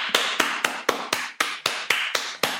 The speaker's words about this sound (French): puis avec votre main droite au-dessus de votre main gauche, et puis l'inverse, votre main gauche au-dessus de votre main droite applaudissez